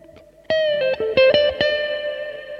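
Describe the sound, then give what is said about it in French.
A distorted electric guitar note is struck several times in quick succession, then bent and shaken with a wide, strong vibrato as it rings out loud, with no talking. “Vibrer fort, vibrer.”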